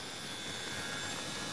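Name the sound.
race car engine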